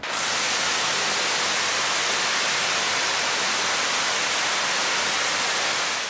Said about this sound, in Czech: Víceméně slouží k popularizaci elektřiny, protože o ty ukázky těch výbojů je velký zájem. Ty výboje jsou dlouhé až 10 metrů a jsou trvalé takže je to velmi impozantní podívaná.